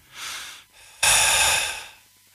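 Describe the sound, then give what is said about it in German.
A voice imitates heavy breathing: a hissy inhale followed by a louder, rougher exhale that fades out, two breaths in all, with no talking. “Ich, ich könnte schwören, ich hätte Atmen oh gehört.”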